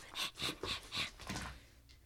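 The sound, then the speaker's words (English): A female dog panting in quick, breathy huffs, about five rhythmic bursts in a row that fade off toward the end, with no one talking. “Her stalker panting, her panting, trying to kiss my face at night are you awake?”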